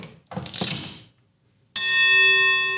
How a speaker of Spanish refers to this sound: Ah, esto ya me está emocionando. Deja tocar la pinche campana antes de que.